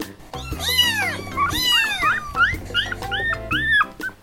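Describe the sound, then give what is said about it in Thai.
High, thin kitten meows mixed with puppy whimpers, about seven short rising-and-falling cries in quick succession, fairly loud over a low steady background drone. “ถ้าพูดถึงลูกสัตว์แน่นอนว่าจะต้องน่ารัก นึกภาพลูกหมา ลูกแมว”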